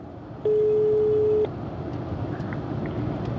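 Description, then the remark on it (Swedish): A single steady telephone ringing tone sounds for about a second as a call is placed to Svenska Dagbladet, clear and fairly loud over a constant low rumble like the inside of a moving car. “Jag ringer upp”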